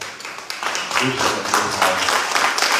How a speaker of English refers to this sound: I would like for everyone to clap your hands for this great woman, God.